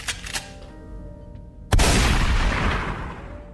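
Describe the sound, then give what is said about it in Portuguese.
A single loud gunshot sound effect, a shot fired at a target, cracks out suddenly after a faint tonal tail, followed by a long, roaring echo that slowly fades. No one speaks. “Eu posso dar tiro, posso pegar aqui, ó.”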